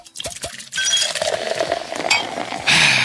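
A few soft glassy clinks and taps, then a steady fizzing rush as a bottle of champagne is opened and poured into a glass, growing a bit brighter toward the end. No one speaks.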